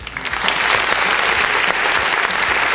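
Steady, loud audience applause: a dense wash of many hands clapping with scattered sharper claps, sustained at an even level throughout with no talking over it.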